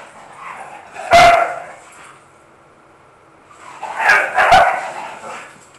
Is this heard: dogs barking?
yes